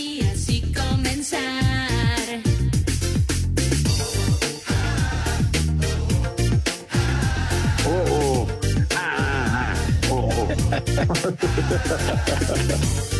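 A loud, upbeat pop song plays throughout, with a steady thumping beat, heavy bass, and melodic vocals riding over dense instrumentation, with only a couple of brief dips in the rhythm.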